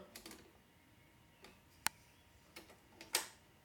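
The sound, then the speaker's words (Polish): Mechanical clicks from a tape deck as the power switch is pressed and power reaches the mechanism: a few soft taps, then two sharp clacks as the head carriage rises and the head presses against the tape, with no one talking. “O, i nacisnąłem power i wtedy Sanki poszły do góry, dostał prąd.”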